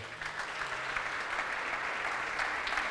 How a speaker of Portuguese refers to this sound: Dá um aplauso, fique de pé.